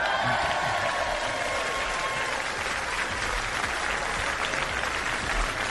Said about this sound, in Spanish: Es decir, en esa universidad que es el Barcelona, tiene un capítulo aparte a partir de hoy el colombiano Reinaldo. Romero. Merece un aplauso.